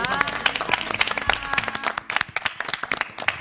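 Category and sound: crowd, audience applause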